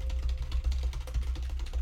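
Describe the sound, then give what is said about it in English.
Rapid, irregular clicking of fingers typing on a computer keyboard, fairly soft, with a steady low hum underneath and no voices. “Listen to me typing. That's me.”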